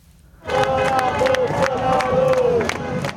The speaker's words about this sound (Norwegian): Ut med Bolsonaro, roper tusener av demonstranter i Brasils største by, Sao Paulo. De gir utløp for et raseri som stadig flere brasilianere føler mot sin president.